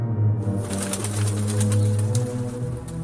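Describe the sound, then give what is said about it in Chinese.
A small bird chirps in quick, high, bright bursts, repeated irregularly over a steady low humming tone, with no talking. “但狗狗也没有睡着，小鸟呢？”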